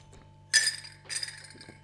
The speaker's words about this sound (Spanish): Así que aquí tengo mi cafecito. Voy a tomar un sorbo y te invito a ti también a hacerlo si es que tienes ahí a la mano.